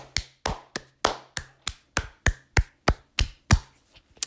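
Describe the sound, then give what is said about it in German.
A steady run of about a dozen sharp hand claps, evenly paced at roughly three per second, each crisp and bright with a short decay, then trailing off into a faint final clap. “Leute, ich will jetzt, dass jeder klatscht.”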